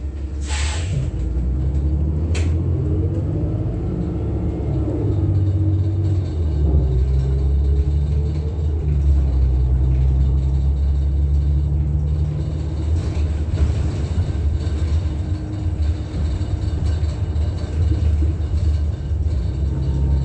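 A steady, loud low-pitched engine rumble fills the whole stretch, like riding inside a bus, with a brief hiss near the start and shifting mechanical drones; no one speaks.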